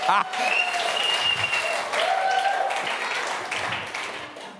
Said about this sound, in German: Ich möchte es über Ehre lernen, dass ihr endlich mal von jetzt an aufsteht, wenn ich auf die Bühne komme und mal richtig klatscht.